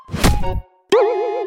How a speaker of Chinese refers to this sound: 顽皮的小猴子折了好多纸飞机，他随手就往前扔，咻的一声，一架纸飞机不偏不倚的撞到了大象的头。